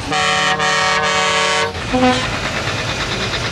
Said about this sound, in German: Und jetzt kommen hier die Trucks, weil das ist ja immer notwendig, dass die Trucks kommen und dann ganz laut hupen.